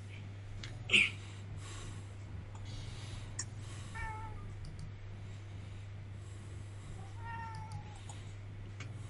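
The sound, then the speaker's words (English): A cat named Gypsy meows twice, a few seconds apart, soft, wanting to play, over a steady low electrical hum with a brief sharp knock near the start. “She wants to play.”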